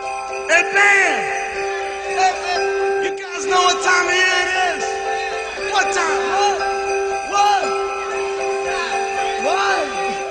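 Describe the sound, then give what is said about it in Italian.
Sleigh bells jingle steadily through a lively live Christmas song, partly buried under loud, drawn-out shouting voices and crowd noise. “Belle eh, le renne, senti i campanelli.”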